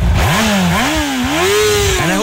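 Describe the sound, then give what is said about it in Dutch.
A 600cc motorcycle with its stock exhaust revs up and down several times, loud, its pitch climbing and falling in repeated throttle blips with a steady rumbling exhaust note and no voices. “Standaard uitlaat zit er nog onder”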